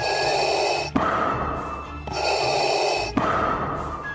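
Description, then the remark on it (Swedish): Slow, loud mechanical respirator breathing of Darth Vader from Star Wars, designed by sound designer Ben Burtt: two full cycles of hissing inhale and exhale with a hollow, filtered rasp, alternating steadily with no other sounds. “Och med tanke på att Ben Burt även var den som designade rösten för R2D2, ljudet av lightsabers och Darth Vaders ikoniska andning”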